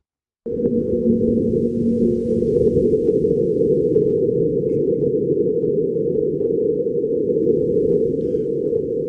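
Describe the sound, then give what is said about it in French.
A sonified recording of a very light micro-marsquake picked up by a seismometer on Mars, placed on the ground under a protective dome against the wind, on April 6 after 128 Martian days: a deep, dense rumble that starts abruptly after a moment of silence and holds steady and loud to the end, with no voices. “C'est un micro-tremblement de terre martien.”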